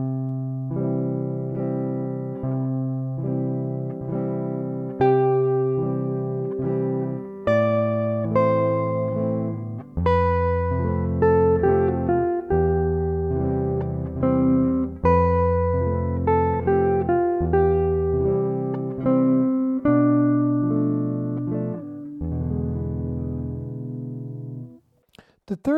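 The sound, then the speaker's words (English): A slow song passage, the first two phrases of the first verse forming a musical sentence, played on clean, synth-like sustained tones: a melody over block chords that change steadily, phrase after phrase, even in volume with no audible singing. “Let's listen to these first two phrases of the first verse.”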